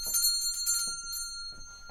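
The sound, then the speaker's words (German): A pull-cord bell, rung by pulling its cord, rings out with sustained, bright metallic tones, struck repeatedly in quick bursts over about two seconds, clear with no voices. “Ziehen Sie die Klingel, habe ich gesagt.”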